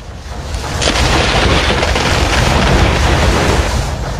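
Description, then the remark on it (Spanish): A loud, rolling crash of thunder from a lightning storm at night rumbles heavily for several seconds, deep and sustained with a crackling edge, with no voices present. “En una noche, el cielo oscuro y bajo comenzó a lanzar relámpagos como llamas.”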